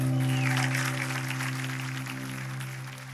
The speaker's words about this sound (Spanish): Y la iglesia dice, amén. Hay un mejor aplauso para Jesús ahora.